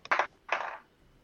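A die, rolled during a tabletop game, clatters across a hard tabletop in two quick rattling bursts, fairly loud, then comes to rest. No voices are heard.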